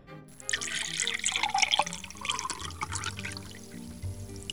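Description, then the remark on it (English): Water pours steadily into a glass for a few seconds, a close, bubbling splash whose pitch rises slightly as the glass fills. No one speaks. “Soon enough, the boy proudly came back with a glass of water.”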